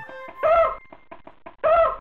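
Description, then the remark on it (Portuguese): A hen clucks: two loud, drawn-out squawking calls with a few short, softer clucks in between, no voices present. “Traga minha galinha e depois deixe-me sozinho.”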